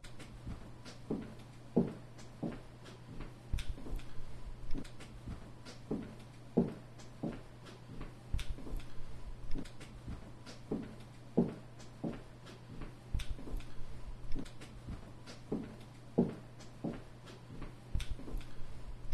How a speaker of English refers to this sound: It's just kind of footsteps.